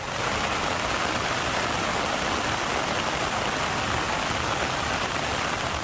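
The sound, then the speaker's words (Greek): Heavy rain pours down alongside rushing floodwater in South Korea, with rainfall reaching 420 millimetres, a dense, steady roar of water that stays loud and constant throughout, with no voices present. “Αυτό είχε ω αποτέλεσμα να υπάρξουν προβλήματα και στο δικό δίκτυο, με τη βροχόπτωση να έχει φτάσει στα 420 χιλιοστά.”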